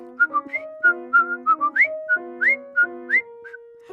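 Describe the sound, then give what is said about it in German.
Someone whistles a short, bouncy tune up close, with quick repeated notes and a few upward-sliding pitches in a steady, lilting rhythm, over faint sustained tones. “Man kann ihn pfeifen.”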